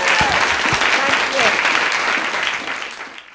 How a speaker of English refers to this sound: All right, one more time, big hand, please, for Mimi Sheraton.